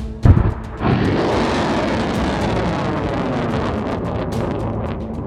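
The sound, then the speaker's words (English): A sharp, loud blast erupts as a drone robot fires its weapons in the Australian outback, then gives way to a heavy, sustained roaring rumble that fills the rest of the moment, trailing into a long, churning wash of noise. “Weapons are locked and ready. Fire.”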